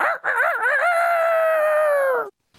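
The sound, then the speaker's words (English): A loud rooster crow sound effect rings out alone, starting with a wavering, warbling rise and stretching into a long sustained call that cuts off sharply after about two seconds, used as an alert for a listener's boost message. “Now you can also send us a boostagram it's the Rooster Booster.”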